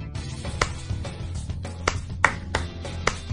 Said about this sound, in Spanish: Vosotros sí que tenéis suerte. Desde aquí, os aplaudimos.